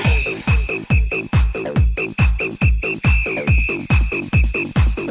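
A high, thin whistled melody floats over a pounding dance beat, with heavy bass kicks thumping steadily about twice per second beneath the sustained, gently shifting whistle tones.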